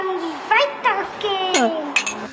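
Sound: glasses clinking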